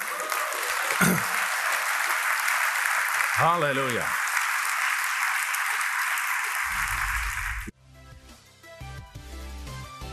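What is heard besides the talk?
audience applause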